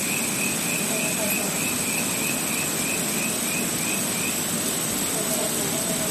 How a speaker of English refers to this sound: That's the marvellous sound of frogs, and uh, there's some outstanding frogs here in Australia. And I uh, love the way they sing that all chirp, chirp, chirp, chirp, chirp.